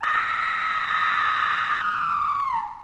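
A single long, high-pitched scream held at full volume for about three seconds, piercing, sliding downward in pitch just before it cuts off. No one talks.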